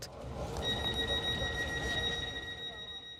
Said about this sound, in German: Das war übrigens kein Geräusch aus einem Spiel, sondern der Zug.